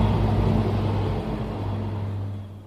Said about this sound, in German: Der vorbeifahrende Zug kommt genau im richtigen Moment.